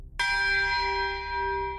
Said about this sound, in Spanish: Suenan las campanas, ¿no? En ese momento. Suenan las campanas.